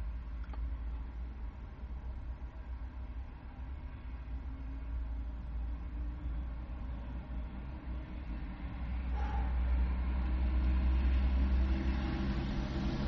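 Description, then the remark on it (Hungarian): Steady low road traffic rumble throughout as traffic picks up at a shift change, with vehicles passing; the noise swells louder in the last few seconds as something heavier goes by. No voices. “Itt beindult a forgalom, mi történik?”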